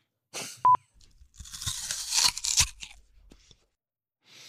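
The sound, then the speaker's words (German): Someone bites crunchily into an apple: a sharp snap, then a few seconds of loud, wet crunching and tearing as the piece breaks off. No one speaks. “Offen reinbeißen, den Mund schließen, deshalb wird es dunkler. Das ist rein und dann knackst du das ab.”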